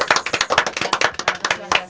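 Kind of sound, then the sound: crowd, applause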